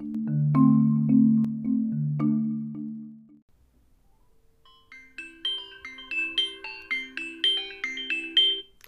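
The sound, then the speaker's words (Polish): A phone ringtone plays a bright, repeating melody of short electronic notes after a brief pause, following a lower, buzzing tonal passage at the start. “Zgadnij, kto do Ciebie dzwoni.”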